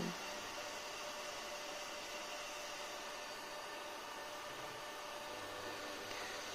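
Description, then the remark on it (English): A cooking stove, in use cooking food late at night, hums steadily with a constant airy whoosh, unchanging in level from start to finish, moderately loud, with no voices. “If you're curious about what that noise is, the sort of humming noise, it's my stove on which I am making”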